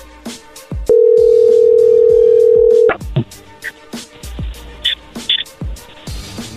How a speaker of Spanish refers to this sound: O oh, ya colgó, márcale de nuevo. Se está marcando ahí.